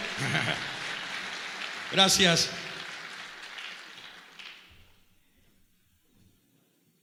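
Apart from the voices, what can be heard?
audience applause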